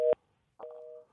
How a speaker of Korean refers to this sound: 어, 이게 전화가 자꾸 끊기네요. 예.